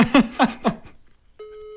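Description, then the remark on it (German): A few quick bursts of laughter give way to a steady, mid-pitched electronic phone ringing tone from a mobile phone on speakerphone, calling a woman who does not pick up. It starts abruptly and holds evenly until the end, moderately loud and without talk over it. “ich, äh, es klingelt nicht, doch, jetzt klingelt's.”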